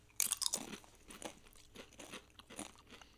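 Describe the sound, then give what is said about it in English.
Crunching on a spicy tortilla chip: a sharp, bright first bite followed by a steady rhythm of about six or seven crisp chewing crunches, moderately loud with no talking. “First chip down.”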